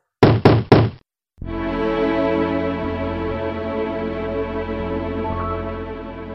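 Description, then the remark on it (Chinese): Three loud, rapid bangs on the door of Rahab's house by a troop of the king's soldiers in quick succession, followed by a brief pause and then a steady low rumbling tone that continues to the end. “然后一队气势汹汹的士兵就冲到了拉合的家门口，砰砰砰的大声敲起门来。”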